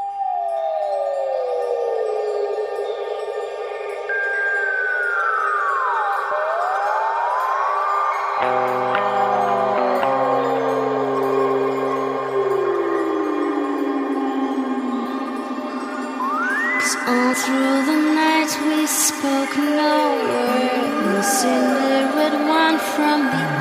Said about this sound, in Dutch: Ehm, we gaan eerst even naar muziek luisteren.